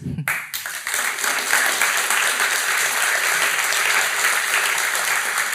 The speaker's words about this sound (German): Und ich finde, das wäre mal auch einen Applaus wert für die Schweiz mit Herz.